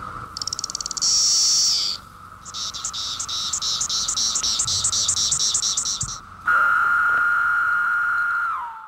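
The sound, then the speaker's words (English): Three different male insect courtship songs play one after another, each male singing a distinct song to attract females of his own species: a high, trilling buzz, then a fast run of rhythmic pulsing chirps, then a steady, lower continuous whine. All loud, with no voices. “You can hear the differences in these three examples, as the male sings a distinct song to attract females of his own species.”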